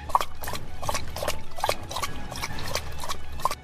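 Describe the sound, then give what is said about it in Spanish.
A dog named Solimán, kept shut in without water, laps water from a bucket in quick, steady slurps, about three per second, fairly loud, with wet splashing between licks and no voices. “Luego nota que Solimán está encerrado sin agua, le busca un balde y el perro bebe con muchas ganas.”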